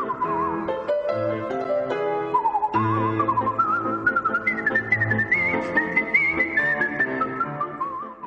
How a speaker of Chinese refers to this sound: 我的纯音乐口哨专辑拿到格莱美奖，进而让全世界的人都喜欢吹口哨，全世界的人都会吹口哨。